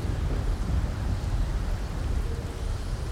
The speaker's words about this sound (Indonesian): Petir masih menggelegar. Di setiap kilatan petir dan suara guntur terdengar suara bisik-bisik.